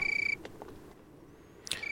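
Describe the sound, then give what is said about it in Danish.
A steady, high-pitched tree cricket trill pulses rapidly, drops out for over a second, then resumes after a brief rustle. It's continuous and fairly soft, like a background insect on a quiet evening. “Og som man kan høre i podcasten, er der både lyden naturen, som den træforkyldning, man kan høre i baggrunden, og den menneskeskabte lyd, der kan være interessant.”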